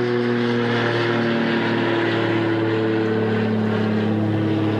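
A propeller airplane drones steadily overhead outdoors, a loud, continuous engine hum with strong low harmonic tones that holds throughout without any talking.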